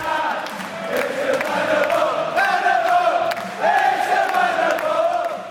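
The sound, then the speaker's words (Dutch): A large English crowd sings and cheers together at a darts match at the moment the winning dart is thrown, a loud, sustained chant with rising and falling melodic lines over a constant roar of many voices. “was nog wel geluid en beeld uit het Engelse publiek van het moment dat je de winnende pijl okay. erin had gegooid”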